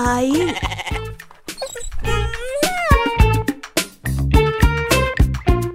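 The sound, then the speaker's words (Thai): Loud sheep bleating, a string of wavering, nasal bleats following one another almost without pause, some overlapping, as if several sheep are calling at once. “เจ้าแกะได้ตอบอย่างไม่มีเยื่อใยพร้อมกับเดินจากไป”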